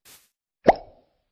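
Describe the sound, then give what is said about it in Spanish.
A single soft, hollow thud as an apple brought down from a tree is dropped into a basket, with a short rattling decay. A faint rustle comes just before it; otherwise quiet, with no talking. “Cuando las tiro, suena así.”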